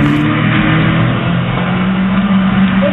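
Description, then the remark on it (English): The engine of a stolen car runs steadily, a continuous mid-pitched drone with harmonic hum, as the thief drives it away while its owner is delivering a pizza. No one speaks. “stole my car.”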